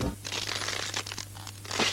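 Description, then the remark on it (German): A Tesa Powerstrip adhesive strip is peeled away in a steady, crackling rip that lasts about two seconds, fairly loud, with a low hum beneath it and no voices. “Von Tesa gibt es doch den Powerstrap. Er hält Bomben fest, und geht trotzdem spurlos wieder ab.”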